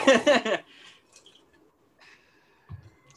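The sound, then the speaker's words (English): A brief slurping sip of tea, followed by soft swallowing and faint breathy noises in near silence, then a small low thump at the end. “I have water. I'm drink, I'm drinking the tea, boy.”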